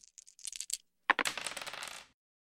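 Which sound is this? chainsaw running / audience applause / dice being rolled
dice being rolled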